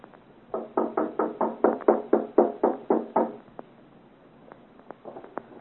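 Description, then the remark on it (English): A rapid, steady burst of about a dozen loud, hollow knocks on the door of a house at night, knocking to wake the gentleman inside, followed by a pause and a few faint, scattered taps. No one speaks. “Knock again.”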